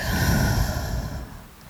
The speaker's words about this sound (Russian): Сделайте глубокий вдох и такой же глубокий выдох.